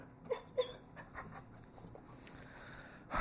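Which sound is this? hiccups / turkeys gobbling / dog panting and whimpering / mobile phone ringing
dog panting and whimpering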